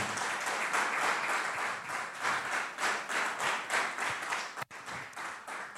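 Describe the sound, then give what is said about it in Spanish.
Sustained applause for the Lord from an audience during a morning sermon, a dense wash of many hands clapping at once with a rolling, uneven rhythm, steady and fairly loud, briefly dropping near the end before resuming. “Amén, da un aplauso al Señor.”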